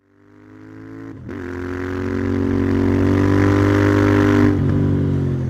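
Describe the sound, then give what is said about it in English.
A modified Royal Enfield motorcycle engine rumbles, growing louder over the first seconds into a steady, throaty drone, with two brief dips in pitch like gear changes along the way. “modified Royal Enfield ate up the miles, driven by the mechanic contractor often used by the drifters”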